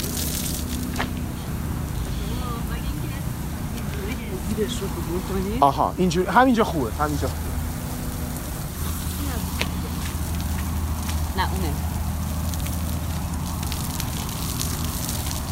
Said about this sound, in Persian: صدای آب پاش های خودکار قطعا خوب بود اما نه صدای سه آب پاش خودکاری که خراب باشند و آب را عوض تن چمن توی گذار پارک و صورت گذرندگان بپاشند خب اینجا کاملا مواجهیم با به اینا میگن آب پاش مثلا آب, آب پاشای خودکار آره